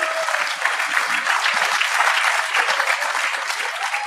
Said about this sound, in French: Moi, on peut-tu, on va, fait que si, On va les, les applaudir.